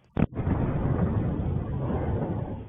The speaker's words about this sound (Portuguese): A suspeita é que a explosão tenha acontecido neste apartamento duplex. A laje do forro ficou estufada. As imagens mostram a dimensão dos estragos: paredes quebradas, portas arrancadas, móveis revirados. Esta câmera registrou o momento da explosão